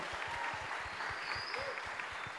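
An audience applauds steadily for a volunteer who helps with audio processing for the broadcast, a dense patter of many hands clapping at an even, sustained level throughout, with no voices standing out above it.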